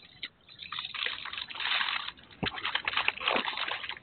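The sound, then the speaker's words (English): Papers rustle and crinkle in irregular bursts for about four seconds, a steady dry scratching with a few sharper crackles and brief pauses. It is moderately loud, and nobody speaks. “you guys hear me wrestling papers? I was going to say somebody's wrestling papers.”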